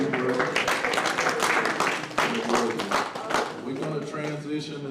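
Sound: audience clapping hands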